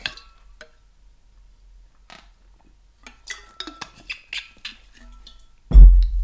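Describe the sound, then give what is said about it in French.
Someone takes a sip of a drink: a light glassy clink, a pause, then a quick run of soft sipping and swallowing sounds, ending with a heavy thud as the cup is set down. “Je bois une gorgée avant.”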